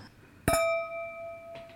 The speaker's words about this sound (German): Yay. Lass uns mal anstoßen hier.